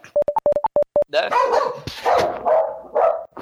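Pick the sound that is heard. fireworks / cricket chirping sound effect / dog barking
dog barking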